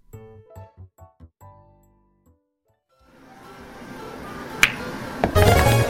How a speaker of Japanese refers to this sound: なんでエアホッケーなんだ4人といえばエアホッケーでしょなんでよ2対2でお互いゴールを守りつつ反射神経を最大限研ぎ澄ますみんなの集中が1点に集まることで一体感を得ることができるゲーセンでできる究極の協力バトルゲームでしょう